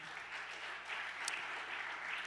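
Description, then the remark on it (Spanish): Sustained applause from an audience, a dense steady wash of many hands clapping at once, fairly loud and even throughout with no voices standing out. “Pídaselo al Señor, del otro aplauso fuerte.”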